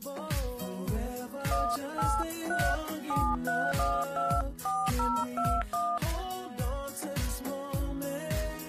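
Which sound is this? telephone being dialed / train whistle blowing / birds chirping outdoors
telephone being dialed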